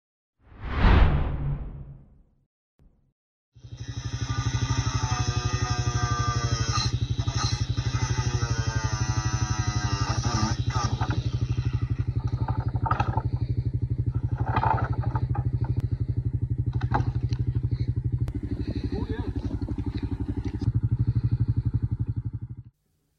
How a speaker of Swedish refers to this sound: De sågar helt enkelt bort låsen till den bom som ställts upp.